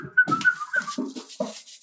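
A dog whines in a thin, high, wavering tone, broken by a few short yelps and snuffles. It is fairly loud, with no talking.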